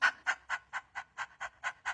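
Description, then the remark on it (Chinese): A person imitates a dog panting as a breathing exercise, using the diaphragm on the exhale: nine quick, evenly spaced breathy huffs, each a short airy burst in a steady rhythm, with no talking. “在呼气的时候，我们要充分的利用我们的横膈肌。也就是在狗喘气”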